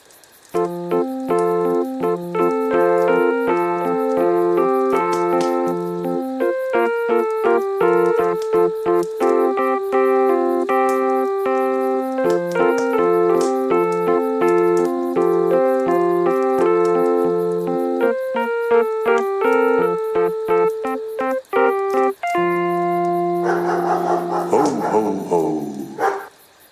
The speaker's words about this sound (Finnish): Eli klassinen joulujingle, jota me soitetaan aina meidän podcastissa joulukuussa. Mä voisin sanoa, että me ollaan ehkä myös Suomen eka podcast, joka vaihtaa aina joulujinglen joulukuussa. Tässä se tulee.